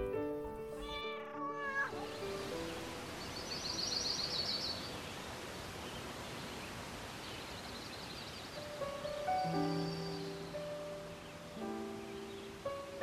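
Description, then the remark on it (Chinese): A cat indoors at someone's feet, in Paris on a drizzly day, meows a few times, drawn-out, wavering cries, one at the start and more near the end, over a steady soft hiss of background noise with no talking. “屋内一只猫咪在我脚下，安静且温暖。”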